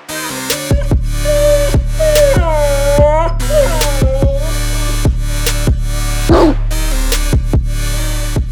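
Small pampered lapdogs yap and bark in quick, sharp bursts, mixed with high whiny yelps and whimpers, fairly loud over a steady low hum; no one speaks.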